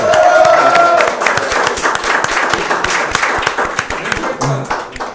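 An audience applauds, a dense flurry of many hands clapping at a steady loud level before gradually thinning out toward the end, with a brief whistle-like tone early on.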